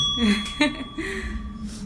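A small bell rings out with a bright, sustained chime, struck again partway through so the tone lingers steadily over a faint, busy background.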